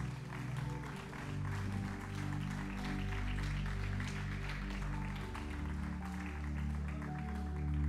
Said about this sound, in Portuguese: Pode dar um aplauso a Jesus.